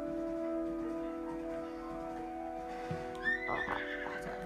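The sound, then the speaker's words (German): A single horse whinny in a video game rises and shakes briefly near the end, clear, over a steady bed of sustained musical tones that runs throughout. “Wenn ihr ein, Pferd, ein gutes Pferd fangen wollt, fangt doch ein zwei, also ein einfarbiges Pferd.”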